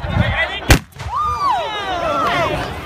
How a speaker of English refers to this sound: Yes, a cannon.